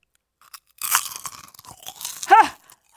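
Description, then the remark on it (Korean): Loud crunching as someone bites into a crisp, salty snack, a burst of brittle crackles followed by softer chewing, then a short voiced hum of approval near the end. “하! 음, 짭조름해. 견디기 힘든 나트륨 공격!”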